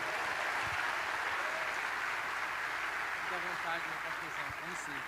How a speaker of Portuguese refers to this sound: E eu queria chamá-lo aqui, queria que você recebesse com muita alegria aplaudindo Jesus pela vida dele.